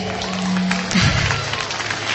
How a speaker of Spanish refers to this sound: Bueno, ya hay niños que se acercan con su carta, con sus regalos. Vamos a recibirlo con un caluroso aplauso, ¿les parece?